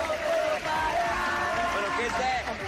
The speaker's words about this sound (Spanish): Lo hicieron en medio de gritos y porras.